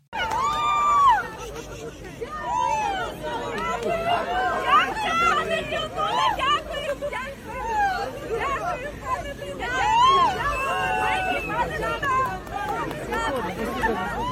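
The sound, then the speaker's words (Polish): A large crowd welcomes the president on the market square in Lviv: constant loud babble of many voices, with excited shouts and cheers rising repeatedly above the hubbub throughout. “No, no posłuchajmy chociaż kawałeczek, jak go witano na rynku w Lwowie.”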